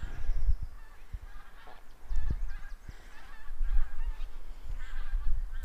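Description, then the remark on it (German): Distant geese honk repeatedly from high above, a scattered chorus of nasal calls drifting over steady outdoor rumble and wind, with no one speaking. “Ich sehe nicht mal, wo die, ich sag mal, Gänse sind.”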